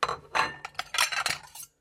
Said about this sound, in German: Sie stellt das Geschirr auf den Ständer und hört, wie es schon wieder losgeht.